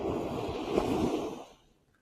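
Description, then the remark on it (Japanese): Ocean waves at the shoreline, heard from a seat on the sandy beach at the water's edge: a broad, washing rush of surf breaks for about a second and a half, then recedes into near quiet as the wave draws back. “ちょっとすごく今日はですね、波の音が聞こえると思うんですが、波打ち際にまね、砂、海岸に座っているので、ザバーザバーと音が聞こえてると思います。”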